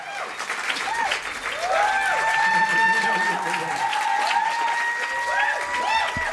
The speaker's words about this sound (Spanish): Ahí continúan los aplausos.